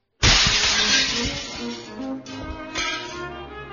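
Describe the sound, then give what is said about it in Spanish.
A sudden, loud crash of window glass shattering from a cannon blast, followed by several seconds of tinkling, scattering shards that slowly thin out. No voices are heard. “El sonido del cañón, su estampido, destruye los vidrios de una ventana.”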